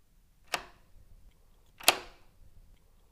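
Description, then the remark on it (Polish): A drawer being opened, heard as two sharp clacks about a second and a half apart, each with a brief rattling tail, against a quiet background with no talking. “Słyszysz, jak ktoś otwiera moją szufladę?”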